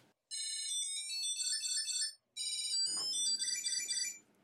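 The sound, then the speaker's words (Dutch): A bright electronic melody from a Tile tracking tag rings out in two bursts of rapid high chirping tones with a short gap between, loud, with no talking. “Het geluid van het tile, weet je wel, zo'n zoeklabeltje.”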